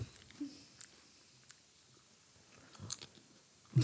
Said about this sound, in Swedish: På grund av att vi tog chips i micken. Ja, jag, jag kan inte ta chips.